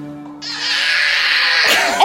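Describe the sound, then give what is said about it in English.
A toddler lets out a single long, piercing shriek of joy, loud, holding the high-pitched squeal for over a second before it breaks off. “that's the noise, right? Like that's the noise of like sheer sheer joy.”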